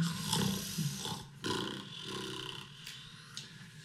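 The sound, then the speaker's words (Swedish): A voice imitates the loud, drunken snoring of someone lying face down on the ground: a few rough, rasping, growly breaths in a row, with no talking in between. “Kör förbi Sampa som ligger på mage med ansiktet ner i marken. Eh, snarkar asfull.”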